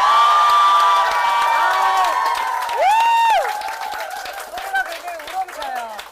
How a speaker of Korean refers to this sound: 네, 우리 우리 직원분들이 여기 또 함께 하고 계신데 예. 여러분들의 함성 소리 한번 들어볼까요? 소리 질러!